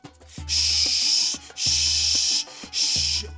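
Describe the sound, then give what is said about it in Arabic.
A voice imitates Ramadan paper tassel decorations, made of newspaper, knocking together in a 3 km/h wind. It makes three breathy, hissing shushes in a row, each about a second long with short pauses between, fairly loud. “اديني سرعة رياح 3 كيلومتر في الساعة مش كتير تمام الشراشيب خبطت في بعض الدنيا بقت دوشة فشخ دوشة”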